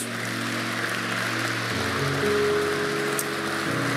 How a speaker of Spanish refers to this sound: Dale un aplauso a Dios.